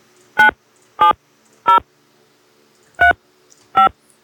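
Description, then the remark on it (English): Five crisp telephone keypad tones are pressed one at a time to enter a Portland zip code into an automated phone system, three evenly spaced, then a short pause before the last two. Each beep is brief and clear, with no voices. “Yeah, what's Portland's zip code, man? Uh, zippy zip. All right. 7035.”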